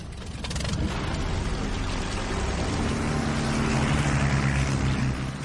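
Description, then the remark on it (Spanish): A pulsejet engine roars steadily and loudly, a harsh buzzing drone with a rough low throb that holds constant for several seconds without any voices. “centra su atención en otro emocionante proyecto que está sacando adelante la Luftwaffe, el desarrollo de la tecnología de los pulsoreactores.”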